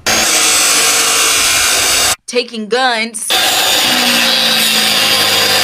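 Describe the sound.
A loud, continuous power saw grinds and whines as it cuts up guns turned in at a Guns to Garden event near a church in Memphis, where the guns are made into garden tools. It briefly drops out while a person speaks, then resumes its steady buzzing roar.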